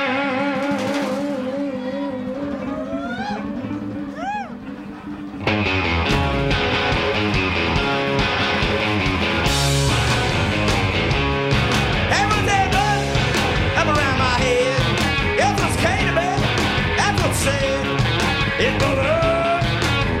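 A live rock song: a thinner opening of wavering, buzzy tones lasts about five seconds, then the full band crashes in loud and dense with driving drums and gritty guitar for the rest.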